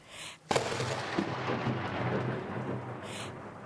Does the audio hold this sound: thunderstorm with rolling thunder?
yes